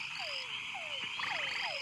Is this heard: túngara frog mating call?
yes